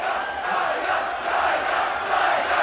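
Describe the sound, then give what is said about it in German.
A dense crowd in a beer tent chants together for a song, voices merging into a loud, steady roar with rhythmic surges about every half second. “Da hat eine Band gestern im Bierzelt gerade angekündigt, dass sie das Lied nicht mehr spielen darf.”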